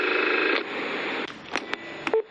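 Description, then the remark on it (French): A short electronic beep near the end, after a stretch of steady phone-line tones and a few sharp clicks, like a voicemail prompt over a telephone connection. “laissez votre message après le bip sonore.”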